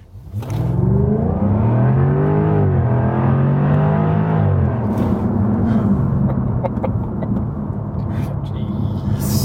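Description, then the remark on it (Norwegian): A deep V8 engine revs up and holds a loud, throbbing roar, its pitch rising and sweeping before settling into a steady rumbling idle-like drone. “Det handler om lyd, og det handler om V8.”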